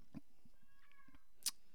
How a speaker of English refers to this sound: What is that? Oh, the cat. There's either a cat or a dog in this house that makes it.